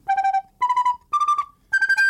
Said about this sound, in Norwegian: altså, det vi får på skolen, eller fikk på skolen før, det er jo sopranblokkfløyten. Og den høres uh, hvordan ut?